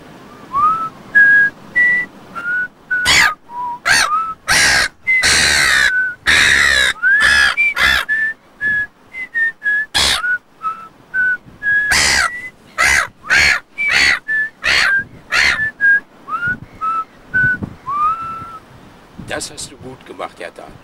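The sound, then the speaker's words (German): A person whistles a wandering tune while a bird calls along in loud, harsh, raspy bursts, dozens of them, mixing in between and over the whistled notes. “jetzt machen wir beide Musik. Ich pfeife und du singst.”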